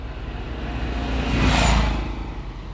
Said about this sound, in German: Achtung, da kommt das Auto.